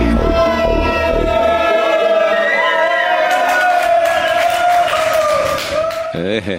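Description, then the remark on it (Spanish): A loud, dense crowd roars and cheers continuously, many overlapping voices merging into a powerful commotion that keeps up for several seconds before briefly thinning at the very end. “Ese jaleo ahí, bueno. Suena muy potente.”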